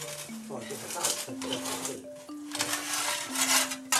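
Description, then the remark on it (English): Gritty, scraping crunches of coal being shoveled into a household stove that also serves as the heater, in Heilongjiang province, northern China, coming in repeated uneven bursts, with steady tones sounding underneath. “This is the sound of coal being shoveled into a stove in Heilongjiang province in this household, like so many others, the stove is also the heater.”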